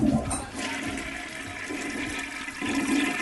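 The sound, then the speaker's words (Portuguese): A toilet flushes with a steady, powerful rush of water that fills the whole moment, fairly loud, swelling slightly again near the end. “Deixa eu ver, deixa eu ver se ela tá preparada mesmo, pronta para mandar pro bueiro.”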